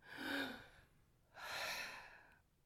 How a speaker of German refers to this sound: Dann kannst du einmal tief Luft holen, atmen